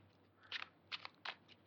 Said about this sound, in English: okay, so let's start with a with a tarot card. I'll shuffle away here. And it's a brand new deck. It's the uh, Rider Waite Radiant Tarot deck. It's like a mini size, so you can actually hold them and shuffle them like a deck of cards.